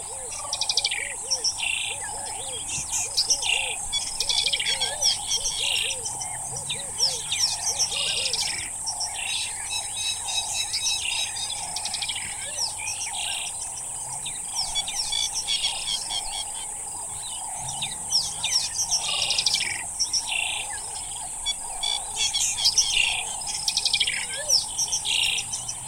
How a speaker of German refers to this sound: Noch bei Dunkelheit fahren wir in die Grassavanne hinein und erleben dort das Erwachen des Tages, das neben der wunderschönen Lichtstimmung insbesondere von einem opulenten Vogelkonzert bestimmt wird.